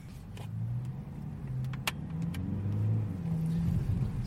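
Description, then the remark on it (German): A car engine hums steadily, its pitch rising and falling as it revs up while driving through a city, with a few faint clicks and rattles over the continuous low drone. “So, man, man hört es am, am Motorgeräusch, am lauten Aufhören. Wir sind in der Stadt unterwegs.”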